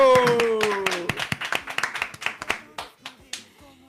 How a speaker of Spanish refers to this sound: Y ustedes se merecen un aplauso para eso. Ay, gracias. Aplauso para nosotros. Aplauso para, ustedes.